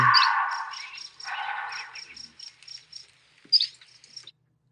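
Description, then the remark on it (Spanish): A bobcat, recorded by a hunter, lets out two harsh, raspy screams, followed by a short sharp cry, while steady high-pitched chirping pulses in the background. “Ese es un gato montés gritando.”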